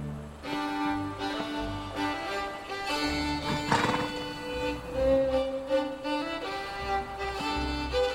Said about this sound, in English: and the horse is not wanting to go anywhere. It's not quite as easy as uh, people would think.